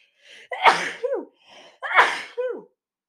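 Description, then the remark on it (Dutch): Two sneezes in quick succession, each with a short breathy intake before a sharp, loud burst, with no one talking. “Ehm, sorry, ik moest even niezen”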